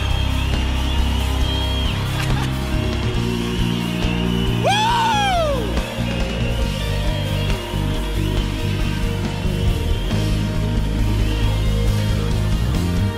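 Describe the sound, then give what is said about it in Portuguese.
A loud, continuous roar from a large crowd, with shouting, scattered clapping and whistling, and one piercing whistle or yell that rises and falls near the middle. “Será que tem alguém que pode fazer assoviar, bater palma, dar glória, gritar, babar?”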